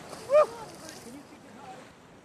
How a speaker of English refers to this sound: See how see how high I can kick the water.